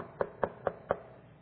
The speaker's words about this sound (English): About an hour later, there was a knock on the door.